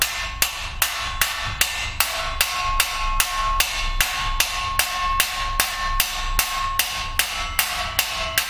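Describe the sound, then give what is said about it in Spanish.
Steady, rapid hammer blows ring out on a bronze plate in a workshop, hammering a martelé finish, about two strikes per second, each with a bright metallic clang and a sustained ringing tone, with no talking. “Es que, no, es que estaba mi hermano martilleando ahí. El martelé es pues. esto. El nombre de la, de la placa.”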